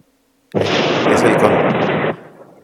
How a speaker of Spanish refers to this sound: ¿Eso, ¿Eso es un trueno? Exactamente. Bueno, qué bonito. Me encanta que la naturaleza intervenga en esta, en esta conversación, en este momento aparte.